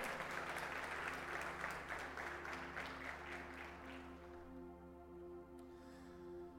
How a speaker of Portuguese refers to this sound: Você acredita nisso? Você pode aplaudir o Senhor por causa desse amor?